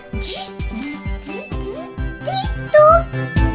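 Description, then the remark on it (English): A child vocally imitates robot noises: a steady run of about seven buzzy, beeping bursts with swooping pitch glides and hissy static, growing louder toward the end. “And what's been your favorite thing to learn and practice for the podcast? Robot sounds.”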